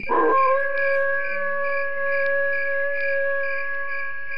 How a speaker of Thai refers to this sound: แต่จู่ๆก็ได้มีเสียงหมาหอนนั้นดังขึ้น